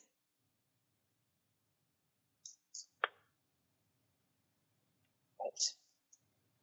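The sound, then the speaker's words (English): Tarot cards being shuffled for a three-card reading: a few quick snapping riffles, a pause of a couple of seconds, then another brief flurry and a final soft click, against a quiet background. “they wanted one extra shuffle.”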